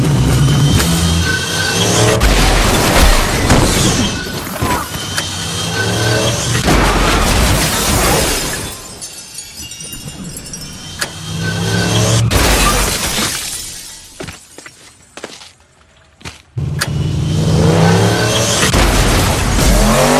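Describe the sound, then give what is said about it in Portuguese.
A loud car crash from a film scene, with shattering glass, heavy booming impacts and tire skids, arriving in several violent bursts separated by brief quieter stretches, dramatic with no talking. “Nossa, meu, o carro passa com um pneu na cara dela.”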